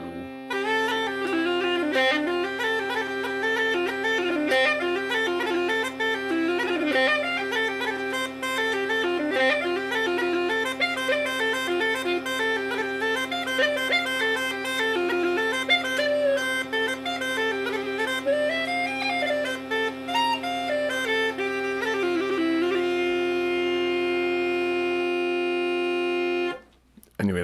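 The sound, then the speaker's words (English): A low, steady bass drone, taped shut, gurgles along under a wavering pipe melody for nearly half a minute, loud and continuous, then cuts off abruptly at the end. “Uh, if you could hear it kind of come in and gurgle along, it's because I taped it shut”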